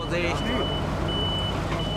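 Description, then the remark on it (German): A truck's reversing alarm beeps steadily at a high, piercing pitch, repeating several times over a loud, rumbling diesel engine while a voice talks underneath. The truck is one of six collecting contaminated sandbags after flooding in Einbeck, Germany, during cleanup by the fire brigade, THW and Johanniter. “Sechs Lkw sind dafür den ganzen Tag im Einsatz.”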